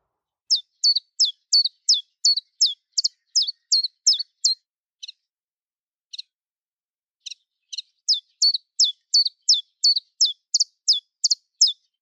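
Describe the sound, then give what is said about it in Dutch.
Common chiffchaff song rings out clear as a brisk three-tone run of high, clipped notes alternating in pitch. After about eight notes it breaks for a few sparse, differently toned notes before resuming. “Daar zit uh, na een stuk of acht Chiffjes en chaffjes, zitten een paar, hoe zou ik het noemen, Chuffies. Echt andere toon, luister maar eens.”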